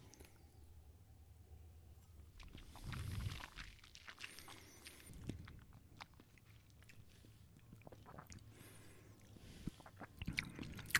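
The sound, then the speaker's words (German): Quiet mouth sounds of someone taking a sip of whisky, with soft wet slurps, swallowing and smacking lips scattered across several seconds, and no talking. “Naja, nehmen wir mal einen Schluck.”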